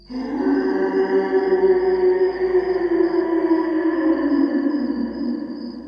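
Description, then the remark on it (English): A person imitates a Godzilla roar into a gooseneck microphone on a tube amplifier, both hands covering the mic as a makeshift echo effect: a single sustained, loud, droning growl lasting several seconds, muffled and resonant, with no talking. “I flicked on the power switch and waited for the tubes to warm, pulled the gooseneck microphone close to my lips, and covered the mic with both hands to form a hasty echo overdrive unit, and I did my best dinosauric Godzilla roar.”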